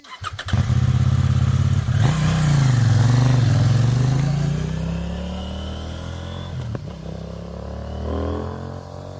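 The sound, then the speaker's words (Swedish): A loud motorcycle engine roars and revs on mountain roads, its pitch climbing and falling as it accelerates, then settles into a steadier, slightly quieter drone before a final small rev. “Så att, eh, jag är väldigt nöjd, haft en riktigt bra dag på riktigt härliga bergsvägar som gjorda för intensiv motorcykelkörning.”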